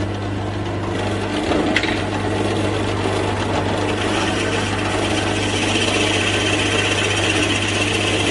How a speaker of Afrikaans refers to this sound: Ons boor nou hier 'n stukkie tambotie En dis een van die lekker houte om te boor want hy lyk of hy nogal olierig is en hy maak die sagste skaafsels. Daar's nie groot stukke hout wat uitkom nie en hy boor baie maklik